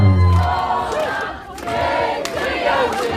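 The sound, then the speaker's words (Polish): A loud, dense crowd of many voices cheering and shouting together on a seaside pier, the longest sea pier in Europe, a continuous roar that dips briefly midway before swelling again. “A gdyż tam we prawym bokomiku przyjdziesz, to dożywisz samo żeńtwowe praszynie, atmosfera to skicza. Bardzo, bardzo głośno.”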